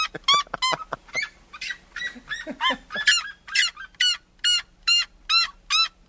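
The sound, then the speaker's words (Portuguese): A red-legged seriema calls loudly, a long series of shrill yelping cries, rapid and jumbled at first, then settling into about eight evenly spaced, ringing notes. “Atenção, senhoras e senhores, com vocês chegando aqui na Rádio Eldorado, o canto da Seriema”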